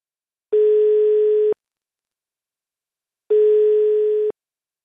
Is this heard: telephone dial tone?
yes